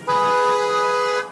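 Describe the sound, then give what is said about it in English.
A single sustained car horn blares loud for just over a second in a dark, narrow alley in Syria, a warning to protesters that security forces are coming; a steady harmonic honk with no voices around it. “Then we hear the cars.”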